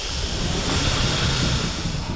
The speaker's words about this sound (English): The sea was moving again.